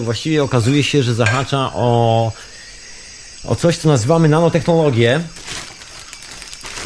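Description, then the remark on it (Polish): Someone rummages through plastic shopping bags searching for a spare computer mouse, a scratchy, crinkling rustle that fills the pauses and continues under a man talking, growing busier toward the end. “Przepraszam za te hałasy, ale no, musi powstać słuchowisko radiowe.”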